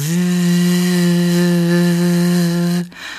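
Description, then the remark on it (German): A voice imitates the rotating brush underneath a street-cleaning vehicle that cleans the roadside: a steady, loud buzzing drone held for nearly three seconds, rich in harmonics, before cutting off abruptly into a brief softer breathy noise. “Es kam so ein Müllwagen oder nicht einen Müllwagen, sondern so einen Reinigungswagen. Kennt ihr die mit dieser Bürste unten, die sich so dreht und dann macht das immer so und”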